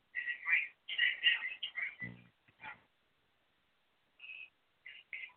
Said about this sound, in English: Somebody's calling. My in. My phone is on. ringing, and I don't know what's. Yeah, I hear some ringing. I don't know what's going on.